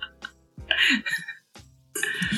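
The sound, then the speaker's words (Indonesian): A few harsh coughs from a person who has been drinking Coca-Cola come in short bursts with brief pauses between them, loud and raspy, with no talking around them. “Acara ini disponsori Coca-Cola yang menyebabkan aku batuk.”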